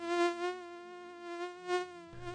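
A steady, high-pitched mosquito whine hums continuously, swelling and fading slightly as if the insect drifts closer and farther away, with no voices present.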